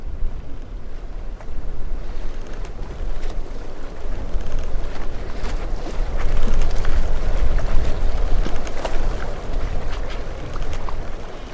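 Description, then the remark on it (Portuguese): A boat moves steadily across the open Mediterranean Sea through an archipelago, its low engine rumble mixed with rushing water and gusts of wind buffeting the microphone, with brief splashes and knocks along the way. “Enquanto a embarcação navega suavemente pelas águas do Mediterrâneo, vamos admirando a paisagem única do arquipélago.”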